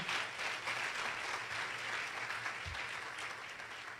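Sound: audience applauding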